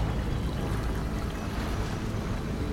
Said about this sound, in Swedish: Men himlen täcks av svarta moln och Havet är farligt vilt och iskallt.